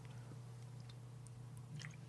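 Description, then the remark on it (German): Someone takes a quiet sip of a drink: soft wet slurping and a few small mouth clicks over a steady low hum, with no talking. “Ich nehme mal noch einen Schluck und dann geht es hier weiter im Programm.”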